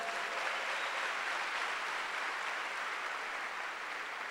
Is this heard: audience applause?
yes